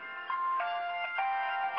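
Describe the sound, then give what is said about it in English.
A phone ringtone for an incoming call plays a bright electronic melody of several steady, sustained notes, fairly loud, with no talking over it. “I just got a phone call and I just turned it off.”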